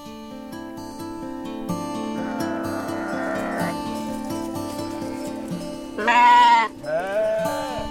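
A flock of ewes bleats over a steady, droning background, with one loud, wavering bleat standing out near the end, followed by another shorter call.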